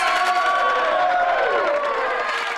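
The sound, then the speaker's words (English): A steady wash of crowd cheering and applause that holds at a constant loud level for a few seconds, with high whoops and shouts sliding through it and no one speaking. “You're giving yourself applause.”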